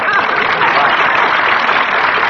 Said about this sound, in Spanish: un aplauso